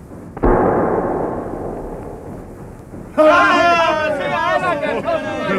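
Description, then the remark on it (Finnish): A single loud cannon shot, fired at a sea creature and hitting but ricocheting off its back, booms and rumbles away for a few seconds. Then a loud, wavering, warbling cry rises and carries on to the end. “Se osui, mutta, mutta ammus kimmahti sen selästä.”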